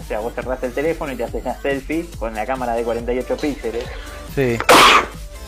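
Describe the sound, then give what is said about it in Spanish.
A man talks steadily in Spanish, then a single sharp, loud sneeze bursts out near the end before the voice returns briefly. “Salud.”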